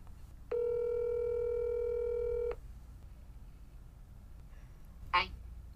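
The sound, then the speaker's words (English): A single steady telephone dialing tone hums for about two seconds over faint background rumble as someone phones a friend, then quiet follows until a brief, sharp burst near the end. “Let us phone a friend, shall we?”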